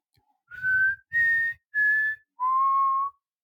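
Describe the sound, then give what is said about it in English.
A person whistles the short four-note whistle from The Hunger Games, three steady high notes followed by a slightly lower, longer final note, with no talking. “It's the whistle from Hunger Games, but they didn't do it in the movie because it's like the revolution in the in like the Hunger Games continuity, not this continuity.”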